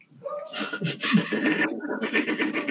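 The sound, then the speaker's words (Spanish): A cat yowls and screeches loudly while fighting with a small dog, a continuous harsh, strained wail lasting a few seconds with noisy bursts. “Gritó a huevo. Está peleando con el perrito.”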